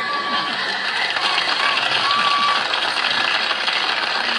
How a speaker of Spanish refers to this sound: Ahí aplaudiste. Gracias.